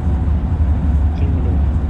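A steady, droning low hum with a soft whooshing wash on top, heard for hours while riding inside a bus, even and unbroken throughout.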